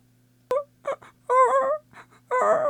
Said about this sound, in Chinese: 小狗在呜咽，海水冰冷，让我直哆嗦。